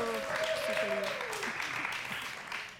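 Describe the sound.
A crowd applauds steadily for a few seconds for a guest, with a few cheering voices rising over the clapping at the start before it gradually tapers off.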